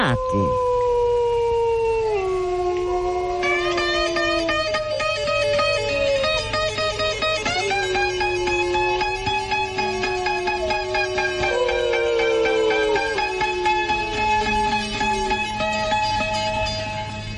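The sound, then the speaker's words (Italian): A chorus of wolf-like howls made by a man imitating wolves, several long sliding voices rising and falling over one another, loud and sustained throughout without pause, with no talking. “uno dice come se noi fossimo invasi dai eh, lupi, no, non siamo invasi dai lupi purtroppo, eh, da dire, eh, ma eh, i lupi sono tornati.”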